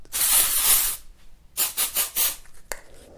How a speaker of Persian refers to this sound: بعد اون یکی اسپری رو در آورد و سریع تو فضای ماشین یک چرخش داد